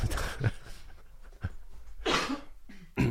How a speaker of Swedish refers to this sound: Sen fick du en hostattack.